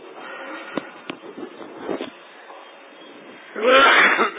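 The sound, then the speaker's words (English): Several short, sharp bursts, then a louder, rougher fit of coughing near the end, harsh, with no speech over it. “I'm so sorry today for the cough.”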